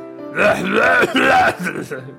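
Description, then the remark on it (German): A voice puts on an exaggerated fake cough, throaty and strongly voiced, in three loud bursts lasting about two seconds, almost like a groan or burp. “Erstmal, vom äh, Fake-Husten husten müssen.”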